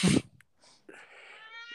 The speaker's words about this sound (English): Um, so that's my cat.